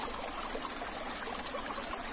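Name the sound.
flowing river water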